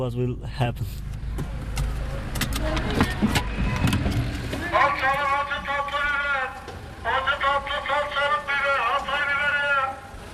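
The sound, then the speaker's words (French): Inside a car, a low rumble sits under a few clicks and knocks for several seconds, then people talk as they get out of the car, over a faint background hum. “Donc là, on vient de descendre euh, de la voiture.”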